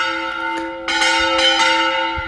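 Church bells ring out loud over a village square as people go into mass, several strikes overlapping into a sustained, shimmering wash of tones that keeps ringing without pause. No one speaks.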